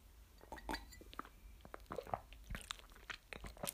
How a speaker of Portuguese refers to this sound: E agora vou dar outro gol de, de água e vou fazer outro ASMR.